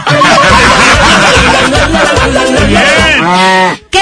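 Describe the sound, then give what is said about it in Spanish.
A person loudly imitates a cow, letting out long, drawn-out moos, with snickering laughter mixed in and a final rising, wavering moo before it cuts off. “¿Qué le dice una vaca a otra vaca?”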